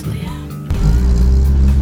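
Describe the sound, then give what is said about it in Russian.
A loud engine of a lowered car rumbles, then surges sharply into a heavy, sustained rev with a deep, throaty low end, at a car enthusiasts' meet of Lada Club NSK and TASS Club Barnaul by the Malinka shopping centre on the last day of November. “на громкие во всех отношениях машины, посаженные, вот я сейчас смотрю на Приору, которая,”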